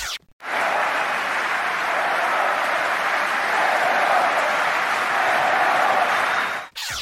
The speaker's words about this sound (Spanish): Lo que acaban de escuchar es la ovación con la que despidieron a Diego Schwarzman ayer de la pista central de Roland Garros. Y no por haber ganado, ya que se despidió en cuartos de final, sino por el partidazo que hizo ante Rafael Nadal.